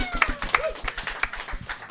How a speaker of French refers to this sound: Hey, mesdames et messieurs, applaudissez notre politicien invité